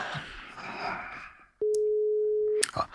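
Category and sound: signal or alarm, telephone call tone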